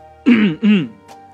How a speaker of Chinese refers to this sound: 他清了清嗓子，一本正经地吆喝道